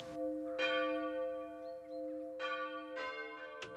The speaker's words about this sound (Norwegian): Ja, det er riktig, men det er på en måte ikke støy. Klokkeklang har jo en tradisjon. Så det hender jo det at vi får eh, klager, og det må vi jo ta. Men det er lov. Det er faktisk lovlig. En lovlig eh, lyd.